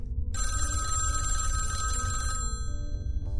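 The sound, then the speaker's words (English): A telephone bell rings loudly and continuously for about two seconds, a bright metallic trill over a low rumbling background, then cuts off abruptly. “Is there a phone in here?”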